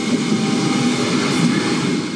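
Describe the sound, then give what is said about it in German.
A hydrogen-powered regional passenger train on the Taunus lines of the Rhein-Main transport network (RMV) rolls past at steady speed, a continuous broad rumble with a faint electric whine and light track noise, loud, with no one speaking. “So klingt die Zukunft auf den Taunusstrecken im Rhein-Main-Verkehrsverbund RMV. 27 Nahverkehrszüge mit Wasserstoff angetrieben und bis zu 140 Stundenkilometer schnell.”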